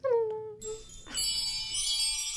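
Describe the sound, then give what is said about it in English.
Wind chimes ring out in a bright, shimmering cascade of overlapping metallic tones, preceded by a short gliding tone, sustained and fairly loud with no talking. “If I had some chimes, I would like play them. Cue sound of chimes.”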